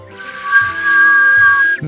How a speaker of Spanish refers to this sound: Sí, y me puedo colgar patas arriba eh, eh, y silbar a través de mis dientes.